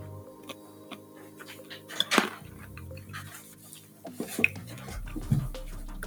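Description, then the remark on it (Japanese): Dishes and cutlery clink and clatter in scattered bursts, with a sharp ringing strike around two seconds in and more clinks later, over a low steady background hum; no one speaks. “ねでも、ルイさんが生活感が漂う、あの、食器の音が気持ちいいってね、コメントくれましたね。”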